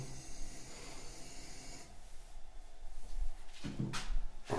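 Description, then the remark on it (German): A male pet cat jumps down, landing with a couple of quick, soft thumps and scuffs after a stretch of steady hissing noise. No one speaks. “Das war mein Kater.”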